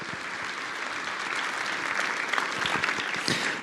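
Steady, dense applause from an audience, a continuous wash of many hands clapping that holds at an even, fairly loud level and swells slightly toward the end.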